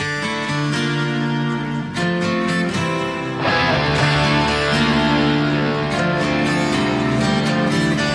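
A recorded song plays steadily with dense harmonic instrumentation and rhythmic hits, filling out and growing fuller about midway, loud and continuous with no talking over it.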